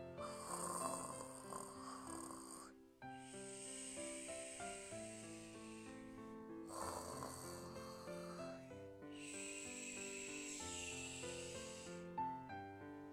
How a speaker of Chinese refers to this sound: 只听见小彩虹鱼的呼噜声。他就这样安心的睡着了。